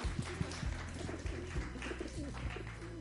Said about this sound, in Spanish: Les quiero pedir un aplauso a los palomos que andan allá arriba.